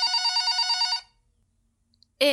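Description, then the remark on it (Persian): A telephone rings in one loud, bright burst of rapid pulsing trills lasting about a second, then silence, before another brief tonal sound starts abruptly at the end. “ساد داره زنگ میزنه بس جوابشو بدم الو”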